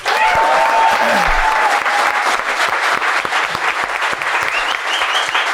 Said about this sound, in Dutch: Dan geeft iedereen een kaartapplaus, want eh, eh, je staat nu helemaal ready. Dus we hebben hem net eventjes gehoord, maar geef hem een kaartapplaus.